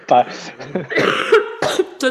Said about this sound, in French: Excuse-moi, j'ai comme toussé.